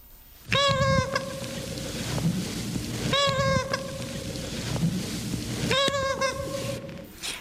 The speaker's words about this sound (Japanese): あのアメリカからやってきた時は「ママ」と泣いていたという人形の声の録音があります。愛媛県の人形だと伺いましたけれどもお聞きください。